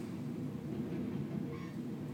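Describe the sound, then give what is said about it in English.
A train rumbles past outside in a city, a steady low roar with faint rattling that holds even for the whole moment, with no voices over it. “The train is coming by.”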